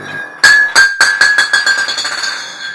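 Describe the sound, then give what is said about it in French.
A glass bottle is knocked over by a person, falls and strikes a hard surface, then bounces and rattles in a quickening series of clinks while a clear glassy ring lingers. Fairly loud, with no voices. “Tu viens de faire tomber une bouteille.”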